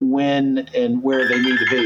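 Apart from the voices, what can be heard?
phone ringing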